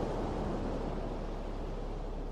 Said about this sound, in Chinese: 张开双臂。感受大海的拥抱，专心静气的聆听着大海的声音。